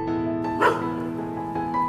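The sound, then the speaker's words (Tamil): A dog barks a few times far off at around three o'clock at night, the short yaps softened by distance over a steady low electrical hum in an otherwise quiet, cool night. “தூரத்தில் ஒரு சில நாய் குறைக்கிற சத்தமாகட்டும் அந்த சாலையில் பயணிக்கிற ஒரு சில பேருந்துகளாகட்டும் இரவுக்குனே உரிய அந்த குளிர்ச்சி அப்படியே எல்லாமே சூப்பராக இருக்குது”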